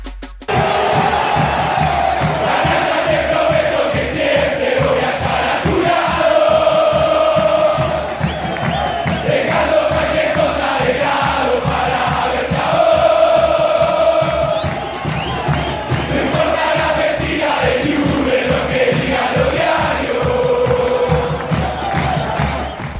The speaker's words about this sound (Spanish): … deambula por el descenso argentino, pero su mítico tema se mantiene en la primera división del fútbol nacional, ya que sufrió adaptaciones en todas las hinchadas. Newells, River y Central son algunos de los ejemplos que escuchamos ahora.